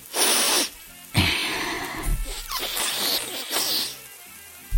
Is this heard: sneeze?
yes